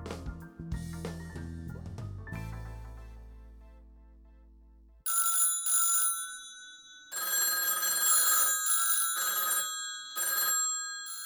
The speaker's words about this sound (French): Ses deux téléphones sonnent en permanence dans son appartement de la rue Marignan